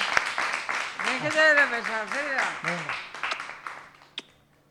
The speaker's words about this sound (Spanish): Le damos un aplauso, le damos un aplauso, que se anime.